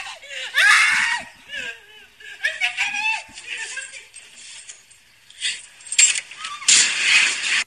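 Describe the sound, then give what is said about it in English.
A person screams and yelps for several seconds while falling off a ledge, then near the end comes a loud, harsh crash as the body lands on a metal air-conditioning unit. “You kind of recognize oh, that's landed on the AC that's unit.”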